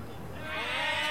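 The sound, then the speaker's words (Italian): A live audience hums and buzzes together in a sustained, droning blare imitating a vuvuzela horn, which is meant to censor a swear word during a blues song. It swells louder over about a second with a dense, reedy group tone. “a fine giro, io starò per dire una parolaccia e voi pubblico dovete censurare questa parolaccia col suono della vuvuzela, ridando dignità alla vuvuzela.”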